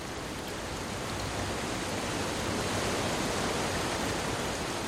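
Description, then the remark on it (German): Foaming brown sewer water rushes and swirls through metal bars in a high, circular chamber with no door, a steady, unbroken hiss and roar that holds at the same loudness throughout, with no voices. “Die braune Brühe verschwand schäumend und strudelnd zwischen Gitterstäben.”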